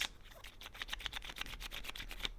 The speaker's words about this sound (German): Hört man das? Das Schrauben der Flasche? Ich höre sie.